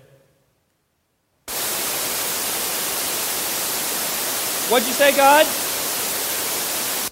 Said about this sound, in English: How many times has the soundtrack of your life been static white noise